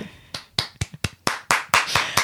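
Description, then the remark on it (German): Applause for a reader after a reading, in the form of about nine distinct, sharp hand claps at a steady, fairly quick rhythm, growing louder toward the end, with no talking over them. “Wirklich ein großer Applaus für dich.”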